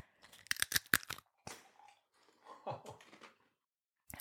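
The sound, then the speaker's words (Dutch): Loud crunching of tortilla chips being bitten and chewed, a quick burst of sharp crunches followed by softer, wetter chewing, then one last crisp crunch at the end. “We beginnen met de tortilla. En als je houdt van ASMR, blijf dan even luisteren.”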